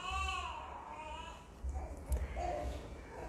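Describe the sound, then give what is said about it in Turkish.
A baby cries faintly, with a wavering wail at the start and another brief whimper later, over low rumbling noise. “Bitiremedim ama gidiyorum. Bebiş beni istiyor artık.”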